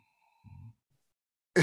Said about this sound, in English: there's a lot of breathing going on oh sorry